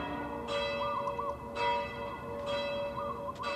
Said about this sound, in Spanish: Las campanas de la Catedral de Guadalajara no se parecen a las de Sonora.